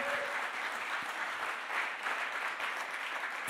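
An audience applauds steadily, a dense wash of many hands clapping at an even, sustained level throughout, with no voices standing out.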